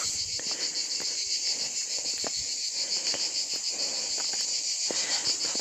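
A dense chorus of cicadas buzzes continuously at high pitch among trees near a summit under a blue sky, steady and loud throughout, with scattered faint ticks and rustles underneath and no voices.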